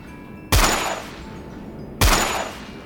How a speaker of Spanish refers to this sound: Escucho mucho ruido, lo que creo que son disparos.